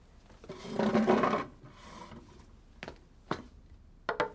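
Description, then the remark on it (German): A wooden chair is turned around and pushed to the edge of a table, scraping across a hard floor in a long, rough rasp, then a shorter drag, followed by several sharp wooden knocks as it settles. No voices. “Er drehte immer den Stuhl verkehrt herum, schob ihn an die Tischkante und setzte sich breitbeinig drauf.”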